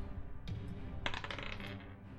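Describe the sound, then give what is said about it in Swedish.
Dice clatter and tumble across a hard surface, a sharp click followed by a burst of rapid rattling taps that gradually settle, with no talking over it. “Eh, jag slår ett nytt två vapen.”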